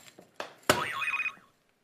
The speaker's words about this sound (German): Oh, es klingelt.